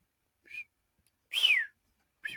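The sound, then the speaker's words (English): A person whistles three short notes close to the microphone; the middle note is longest and loudest, sliding downward in pitch, with brief silences between them and no talking. “I'm trying not to whistle right into the microphone because I know that doesn't work.”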